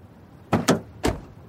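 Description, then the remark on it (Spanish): A car door shuts with a few quick, solid thuds in close succession as a man gets into the car, with no one talking and only quiet background around the impacts. “Stephen sube al auto y vuelve a la casa rodante”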